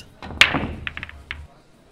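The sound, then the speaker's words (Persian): The black eight ball, the last target, thumps sharply against the billiard table cushion, followed by a quick cluster of lighter clicking knocks and a soft low rumble as it rolls away. “توپ به دیواره خورد.”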